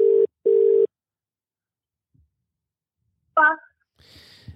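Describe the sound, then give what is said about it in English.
An outgoing phone call's ringback tone: a steady low double ring, two short pulses close together, clear and alone, followed by silence and then a brief voice answering faintly. “This is the part where the phone rings.”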